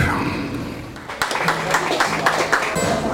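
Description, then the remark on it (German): A group of people claps along in a loose, steady rhythm somewhat in the background of a live, non-studio music recording, mixed with voices, laughter and singing; the claps start partway through and continue to the end. “dass es nicht sauber eine saubere Studioaufnahme eines Musikstücks ist, sondern man hört eben noch im Hintergrund die Leute klatschen und lachen.”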